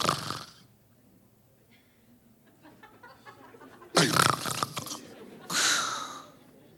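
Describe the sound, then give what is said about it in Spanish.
Three loud, harsh rasping snores, each a breathy, rattling burst lasting about a second, separated by quiet pauses with faint background murmur. “No sé que, que si usted está roncando y, si tiene apnea, sleep apnea, apnea, y usted queda...”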